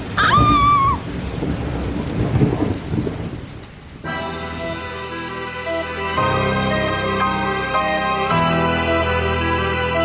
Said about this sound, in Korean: 어? 비가 내리네?